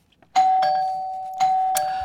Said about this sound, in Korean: 아, 손님 왔네요. 네, 띵동, 띵동. 네, 지금 혹시 네 하고 나가시는 분들 계십니까? 딩동딩동 벨소리 효과음입니다.